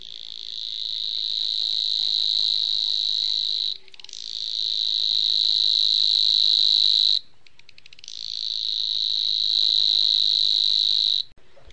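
A Savi's warbler (Locustella luscinioides) delivers its reeling song: a fast, buzzing, insect-like trill on one steady high pitch, loud and continuous, sung in three long bursts separated by short pauses.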